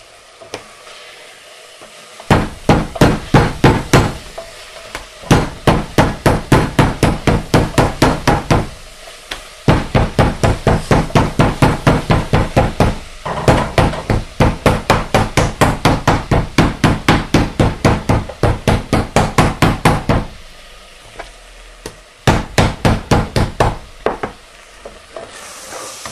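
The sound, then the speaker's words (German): A mallet pounds food flat on a cloth laid underneath to soften the noise, in quick, loud bursts of rapid thuds, several runs of steady blows separated by short pauses, with a faint hiss underneath and no voices. “Hört sich jetzt zwar wild an, aber ne, soll schön dünn sein.”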